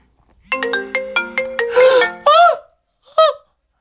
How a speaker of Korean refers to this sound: 갑자기 제 휴대폰이 요란하게 울려댔고 급히 그 끄긴 했지만 한 3초 정도 흐르는 그 정적.